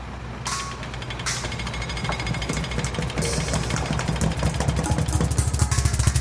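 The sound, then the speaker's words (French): A jackhammer pounds on asphalt in a rapid, steady rattle of sharp repeated strikes over a low engine drone, growing slightly louder and denser toward the end. “Un marteau-piqueur sur le macadam.”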